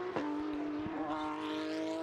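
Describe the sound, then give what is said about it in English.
A Porsche 992 Cup race car's six-cylinder flat-six boxer engine howls at high revs, a loud, steady buzzing roar holding nearly one pitch with a slight rise toward the end, with no voices over it. “Flat six, six cylinder horizontally opposed or boxer engine as it's sometimes called. Great sound it makes as well.”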